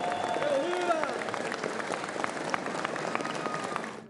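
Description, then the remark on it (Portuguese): Sustained applause from the full plenary chamber as deputies applaud Lira on his return to the presidency of the session: a dense steady roar of many hands clapping for about four seconds, with faint voices mixed in and a brief tonal whistle-like sound early on. “Na volta de Lira à presidência, o deputado foi aplaudido por todo o plenário, já demonstrando a força que conseguiu construir ao longo das últimas semanas.”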